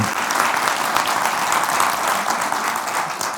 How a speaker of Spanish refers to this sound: Un aplauso recíproco